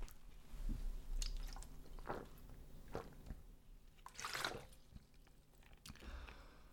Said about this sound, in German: ich gönne mir einen Schluck Wasser, nennt sich dieses Getränk. Finde ich voll lecker.